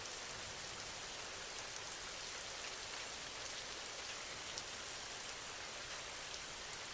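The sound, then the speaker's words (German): Steady rain falls continuously, a dense hiss with soft scattered droplet ticks on a surface, even in level throughout, with no voices present. “Tiefer und tiefer entspannst du dich, während du den Klang des Regens hörst.”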